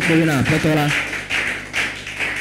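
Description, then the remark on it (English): A group claps for the Lord during a sermon in a loose, uneven patter, fairly soft and brief, following a short burst of a raised voice at the start. “If you believe what I'm saying, why don't you put your hands together for the Lord?”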